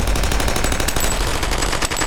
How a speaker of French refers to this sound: Les canons des mitraillettes jaillissent de toutes les portières et crachent leur feu meurtrier.